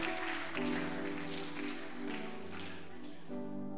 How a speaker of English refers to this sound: clap, clap, clap for the Lord. clap for the Lord.